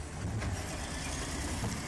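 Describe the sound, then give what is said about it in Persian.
A heavy bulldozer engine runs steadily, a constant low, throbbing rumble with a rough mechanical grind on top, unchanging in loudness throughout, with no voices. “زیر لب گفتم بابا این صدای بلدوزر که نمیگذارد صدا به صدا برسد”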